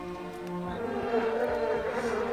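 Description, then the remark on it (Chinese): A housefly flying in buzzes in one steady, continuous drone for a couple of seconds, a low, even hum with a slight waver in pitch and no other sounds or talking. “嗡嗡嗡！ 一只苍蝇飞了过来”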